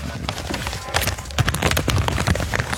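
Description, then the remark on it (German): Paper rustles and crinkles as pages are turned on purpose to make a page-turning sound effect, a run of crisp, scratchy bursts with a few sharper flicks, fairly loud and without any talking over it. “Soll ich mal so ein Umblättergeräusch machen hier?”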